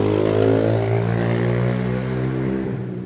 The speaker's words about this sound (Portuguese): É, desculpem, né? Hora do delivery, então tem bastante moto por aqui.